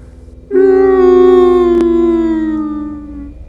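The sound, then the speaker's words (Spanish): A harrowing, wailing scream with crying, resounding through a hotel, starts abruptly and holds one loud, sustained tone for about three seconds, sagging slightly in pitch as it fades, with no talking. “Un sonido desgarrador acompañado de un llanto resonó en todo el hotel, como esos gritos como esos lamentos que tienen algunas señoras cuando están sepultando a un ser muy querido en el panteón.”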